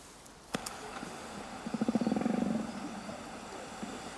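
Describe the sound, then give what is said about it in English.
A whale from another group gives a whooping call, a quick run of rhythmic pulses that swells and fades over about a second, against a quiet background with a couple of sharp clicks. “I think the whoop is a kind of hello to them possibly, Hello, I am.”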